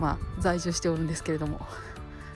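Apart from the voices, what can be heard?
crow cawing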